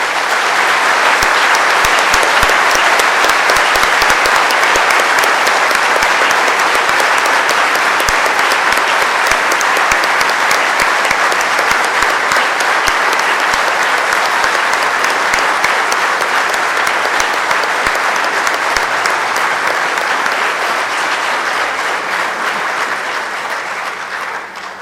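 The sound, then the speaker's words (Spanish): Sustained applause from a crowd for the speakers' son, many hands clapping densely and steadily for about twenty-five seconds at a loud, even level, tapering slightly at the very end, with no voices standing out. “Les pido un aplauso para nuestro hijo.”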